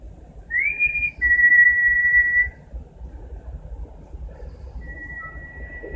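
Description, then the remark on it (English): A person whistles back in reply: a short rising note, then a long steady tone, with a fainter held whistle near the end, all over a constant low rumble of background noise. “Oh, oh, he oh, whistled oh. back.”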